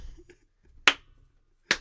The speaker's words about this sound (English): I just start clapping.